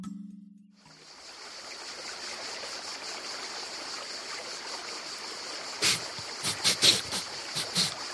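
A steady rush of river water babbling over rocks, with a few brief brighter splashes near the end and no voices.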